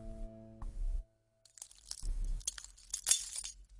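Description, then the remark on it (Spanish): A low, steady droning tone fades into a brief silence, then glass shatters loudly in several crashing bursts, with bright tinkling shards scattering between and after the impacts, representing Kristallnacht, the Night of Broken Glass, in Germany. “La noche de los cristales rotos”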